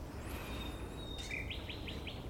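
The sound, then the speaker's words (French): Small birds sing softly: a thin, sustained whistle, then a quick run of four high chirps in steady rhythm, over a faint hiss of outdoor background noise. “Les petits oiseaux qui chantent.”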